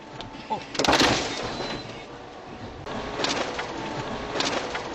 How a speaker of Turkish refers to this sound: Korkunç kazada iki kişi hayatını kaybetti, üç kişi yaralandı. Tonlarca ağırlıktaki dev kayalar arabaları dümdüz etti. İki kişinin öldüğü, üç kişinin yaralandığı olayda o dehşet anları bir araç kamerasıyla kaydedildi.